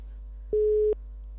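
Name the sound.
phone ringing tone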